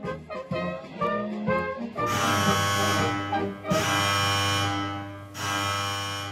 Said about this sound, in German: Alarm in der Festung Schönernbuch.